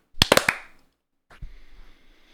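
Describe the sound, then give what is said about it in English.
Four sharp hand claps, made to sync the audio, in a quick, uneven burst, loud and crisp against silence, then a short pause before a softer thump and a lingering hiss of noise. “And then we'll do a clap sync”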